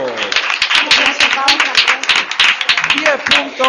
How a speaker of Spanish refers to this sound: Y esa respuesta, colegio Manuel Canela, ha sido correcta. Un aplauso.